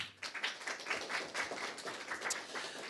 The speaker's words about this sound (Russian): Леонид Александрович Кацва, друзья, аплодисменты.